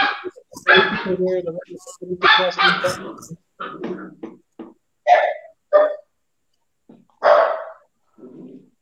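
dogs barking

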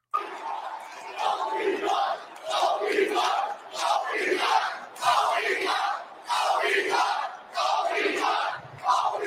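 audience cheering

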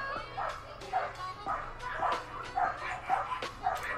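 dogs barking outside

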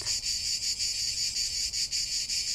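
cicadas singing

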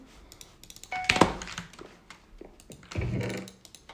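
computer mouse clicking

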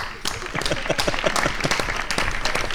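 applause

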